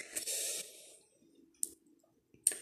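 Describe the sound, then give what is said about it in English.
Someone drinking water: a long, hissy sip at the start, then two short, sharp gulping sounds spaced apart, with a faint low hum underneath and no talking. “Excuse me, I'm drinking water.”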